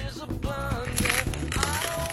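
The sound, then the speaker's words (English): Crunching as someone bites into crusty homemade French bread pizza topped with baked kielbasa sausage and pepperoni, a few loud crackly bursts over about two seconds, with a faint tonal murmur underneath. “Made some uh, French bread pizza tonight. Hear that crunch?”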